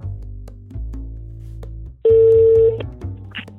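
A telephone call being placed to the Good Fish Foundation: a series of short dialing tones, then a steady ringing tone sounding over a low background hum, with no voices.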